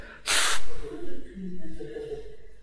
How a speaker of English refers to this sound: I'm going to blow my nose.